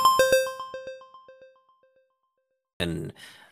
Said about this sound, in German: Jingle! Klingel! Und jetzt die Nachrichten.